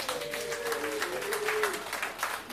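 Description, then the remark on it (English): A crowd claps steadily for a few seconds, a dense patter of many hands at moderate volume, with a single drawn-out whoop or cheer rising above it early on. “Clap it up if you know where the jungles are.”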